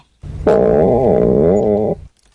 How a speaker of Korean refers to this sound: 이 소리는 빈속에 마신 우유 때문에 웨딩드레스를 곱게 차려, 입은 신부패에서 꾸룩꾸룩 꾸룩꾸룩 신호를 보내는 소리입니다. 아 그렇습니다. 아 아까 샵에서 먹은 우유가 그게 화근이 아 그게 좀 그런 것 같더라고요.